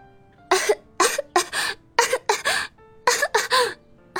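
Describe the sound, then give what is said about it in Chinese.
A fit of harsh, sputtering coughs from someone who has choked on soy milk while holding the table edge, about eight bursts in uneven clusters with brief wheezy gasps between, fairly loud with no talking. “何露被豆浆呛到，摸着桌沿儿一阵咳嗽”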